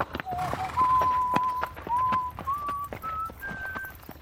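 Horse hooves clip-clop at a steady walking pace while someone whistles a simple tune on top, each held note stepping a little higher than the last.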